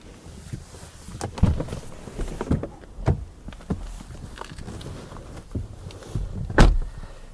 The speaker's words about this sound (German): Die Türen lassen sich optional auch elektrisch öffnen und schließen.